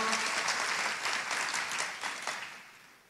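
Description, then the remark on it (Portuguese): An audience breaks into sustained applause in praise of God, a dense wash of many hands clapping at once that holds steady before gradually thinning and fading out. “Glória a Deus, pode aplaudir o Senhor.”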